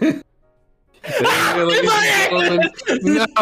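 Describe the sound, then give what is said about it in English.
After a brief hush, a loud, drawn-out gasp with a voiced, strained edge lasts over a second, followed by a couple of shorter breathy bursts. “Heard, we heard that breathing. You broke the moment of silence.”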